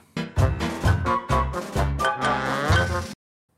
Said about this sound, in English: One final thing before we finish is a little dissonant moment. Um, I'll play it for you.